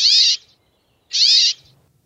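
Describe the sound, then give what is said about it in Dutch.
Two drawn-out, nasal, wheezing brambling calls played from an app, each about half a second long and separated by a brief pause, sounding loud with no voices or other sounds around them. “Notenkrakers - Aflevering 21 keep”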